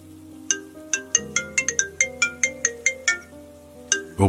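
A mobile phone ringtone plays loudly and up close, a bright melodic chime of quick repeating notes over a sustained tone, with no one speaking.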